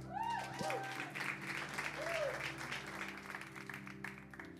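An audience applauds steadily for several seconds to welcome a speaker from Mexico, a dense wash of clapping with a few whoops and cheers rising above it early on.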